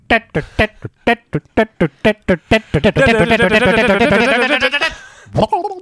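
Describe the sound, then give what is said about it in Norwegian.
A voice imitates the music that plays when Sonic is drowning in the video game: short staccato sung notes quicken into a rapid stutter, then become a long, loud, wavering tone that cuts off, followed by one brief syllable. “Ta den lyden når Sonic drukner.”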